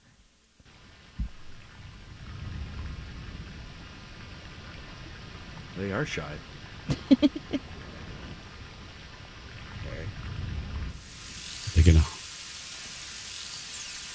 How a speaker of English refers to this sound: Uh, right. this they've captured it um, from the, an Arctic glacial fjord. So oh. um, here's here's a narwhal and uh, how they sound. They're notoriously shy.